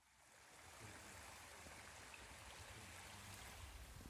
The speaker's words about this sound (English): Like the other ones we'd visited, this one also had a small green dome. A stream trickled away next to the building, which was surrounded by trees.